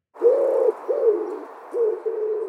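A pigeon coos in several low, rolling phrases, one after another with short pauses between, fairly clear with nothing else around it.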